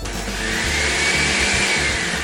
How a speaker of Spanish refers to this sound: Una vez ya disuelta por unos segundos, se vacía la mezcla en la licuadora. Después agregamos la leche condensada, la leche evaporada, la ralladura de limón y lo licuamos.